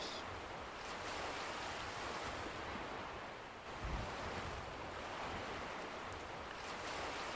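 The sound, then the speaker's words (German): Ocean surf washes steadily onto a beach in a continuous broad hiss, briefly easing before a fresh wave swells in midway. No voices, just the even roar of the water. “Und du kannst dir vorstellen, wie mit jeder Welle alles Negative, alles, was dich belastet, aus dir herausgeschwemmt wird.”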